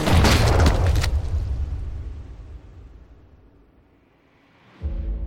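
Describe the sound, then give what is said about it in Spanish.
A single loud gunshot blast, the third shot fired at a man fleeing into the sea, with a long, rumbling tail that fades over several seconds, followed near the end by the steady, humming, motor-like drone of a boat starting off. “El tercer balazo fue definitivo.”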